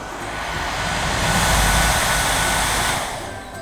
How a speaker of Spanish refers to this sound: El viento sopló y silbó alrededor del arca, ah, como cuando yo me soplo el pelo para secármelo con la, con la secadora de pelo, así.